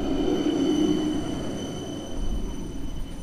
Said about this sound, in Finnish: No, nyt otetaan joka tapauksessa spora alle ja lähdetään Alppiharjun kiemuraisille kaduille kohti alueen toista päätä eli Alppilaa.